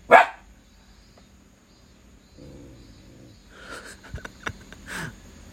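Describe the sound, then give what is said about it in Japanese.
A dog lets out one sharp, loud bark at a passerby, followed by a quiet stretch and then a few softer huffing, yelping sounds near the end. “びっくりした急に吠えたなそらそらああ通行人の人ね別に何もくれへんよ威嚇してますね”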